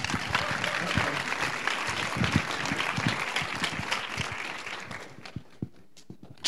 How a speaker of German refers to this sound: Gebt ihr noch einen Applaus.